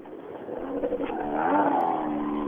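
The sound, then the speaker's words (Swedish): An R3 rally car, one of the oldest R3 cars, nearly ten years old with a two-litre engine, roars past, its buzzing pitch climbing as it accelerates, loud and steady for a couple of seconds with no one talking. “Det är lite udda bil, men de går inte dåligt en sån där.”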